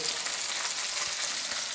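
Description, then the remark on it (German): Steady sizzling of onions browning in a hot pan, a continuous crackling hiss with tiny pops, no voices over it. “Gut, dann werden wir jetzt mit der, so also jetzt der Zwiebel ist schon mal gut angebraten.”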